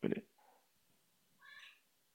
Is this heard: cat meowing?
yes